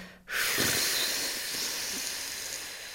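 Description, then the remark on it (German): A long, steady exhale pushed out as a breathy whoosh during a breathing exercise, after inhaling through the nose for four seconds and holding for seven, meant to last eight seconds with sound; starting abruptly and holding at an even, fairly loud level for nearly three seconds without any talking. “Und jetzt acht Sekunden wieder mit, dem, mit diesem Sound.”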